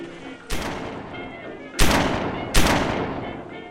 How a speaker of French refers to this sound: Qu'est-ce que c'était euh, Des pétards, peut-être Des pétards, on n'est pas le 14 juillet. D'où ça venait, à ton avis de Foncillon ou du port. Avec le vent, c'est difficile à dire.